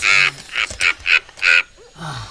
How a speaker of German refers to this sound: Halt den Schnabel, Blackie. Ah, dieser Vogel.